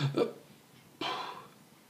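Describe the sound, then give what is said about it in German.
A short, low guttural burp, followed about a second later by a breathier, airy burst that trails off, with no talking over it. “Und Aber manchmal, wenn es mir aufstoßt, dann darf ich auch ganz Ja, ich bin, ich bin, dieser, ich bin dieser Röpser.”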